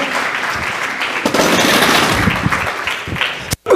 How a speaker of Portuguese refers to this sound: Uma salva de palmas